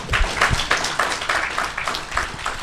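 A crowd applauds steadily, many hands clapping in a dense, crackling wash of sound that stays fairly loud and even throughout, with a few sharper claps standing out.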